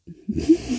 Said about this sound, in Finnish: Se oli mun maha, joka möyrys, älkää välittäkö.